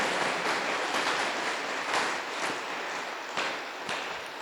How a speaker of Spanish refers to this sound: Yo creo que podemos brindarle un fuerte aplauso al Señor por su bondad.